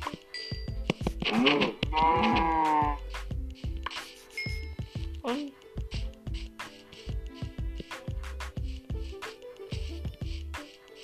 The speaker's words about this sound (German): ist nur ein Huhn. Doch, oh, ich will ein Schaf. Hühner jucken mich nicht.